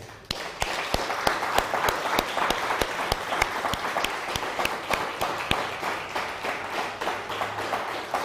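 A burst of steady applause from a group, raised as a loud round of applause for Shem, dense overlapping claps with a few sharper, louder claps standing out at a quick regular rhythm, sustained evenly for several seconds with no voices.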